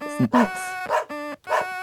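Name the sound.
dog barking and whimpering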